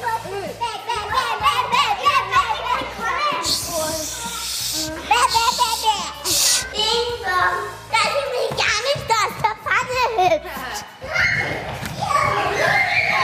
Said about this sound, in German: Sie hören es im Hintergrund, hier wird wild getobt. Ich bin nicht in irgendeiner Turnstunde, ich bin heute in der Psychomotorikstunde und zwar im Kindergarten